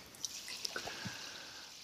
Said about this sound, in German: ich, ich trinke ähm, meinen Klassiker, ne? überkarbonisiertes Wasser mit dem SodaStream zubereitet.